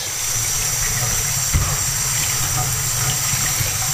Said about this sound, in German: So, den hier brauchen wir ja nicht ganz so abzuspülen. Mein Becher, aber ah, tue ich trotzdem. Da war ja letztendlich nur Wasser drin.